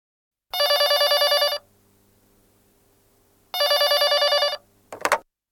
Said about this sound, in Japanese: 取引先の男の人から電話がかかってきました